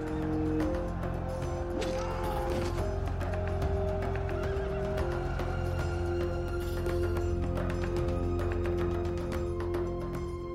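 Horses whinny and neigh over a busy, steady background while hooves clop now and then, the calls rising loudly and repeatedly across the scene with no one speaking.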